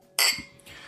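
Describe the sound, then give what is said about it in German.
Two glasses clink together in a quick toast, a bright ringing tap followed by a softer second chime that fades out, with no talking. “Chin Chin.”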